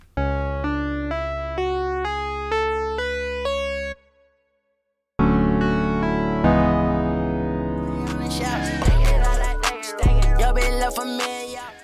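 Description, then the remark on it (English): A dark trap beat in the Phrygian mode with deep, booming 808 bass hammering a chromatic flat-second-and-root bassline under stepping synth notes; it pauses briefly, returns with sustained chords, then crisp hi-hats and punchy drums kick in. Purely instrumental, no voices. “trap tracks are written this way in Phrygian as a mode, which is a standard mode but just a less common one”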